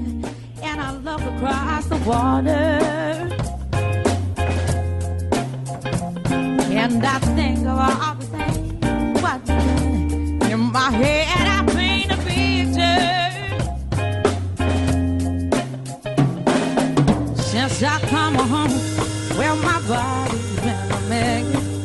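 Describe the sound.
A radio listener's cover version of a pop song plays loudly and steadily from his video, a male voice singing the melody over driving bass, drums and guitar, with no talking over it.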